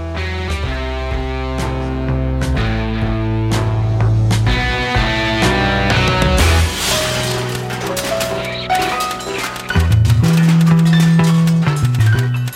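A loud, carnival-like instrumental theme tune plays alone as the hosts walk on stage at a live show in Los Angeles, with sustained wheezy organ-style tones, shifting bass notes and frequent clanking percussive hits, sounding slightly off-kilter and winding along for several bars.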